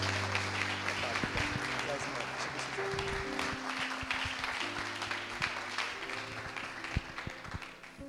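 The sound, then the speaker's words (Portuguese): An audience applauds the Lord to welcome a preacher, a dense, continuous patter of many hands clapping at a fairly loud, even level, with sustained organ-like tones beneath it throughout. “Vamos mais uma vez recebê-lo com muita alegria, aplaudindo ao Senhor.”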